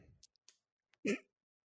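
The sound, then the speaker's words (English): A single sharp, loud sneeze bursts out near the end, preceded by a few faint clicks and a soft intake of breath, with no talking. “Bless you, bless you,”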